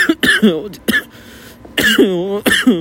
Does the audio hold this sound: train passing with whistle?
no